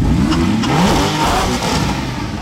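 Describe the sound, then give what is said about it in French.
A Porsche 991 GTS sports car engine revs loudly, its pitch rising and falling in quick surges over a steady throaty rumble, with no voices. “Porsche ne laisse pas neutre. Oh, c'est pas Porsche, je pensais, parce qu'il y a une, un paquet de bagnoles euh, qui font du bruit”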